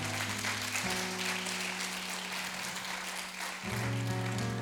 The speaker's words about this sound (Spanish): Haga un fuerte aplauso al Señor.